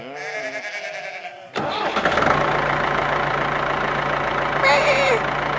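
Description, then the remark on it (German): A baby lamb bleats insistently in protest for about a second and a half, then a tractor engine starts up and rumbles steadily, with another short bleat rising over the engine near the end. “das Babyschaf, protestiert.”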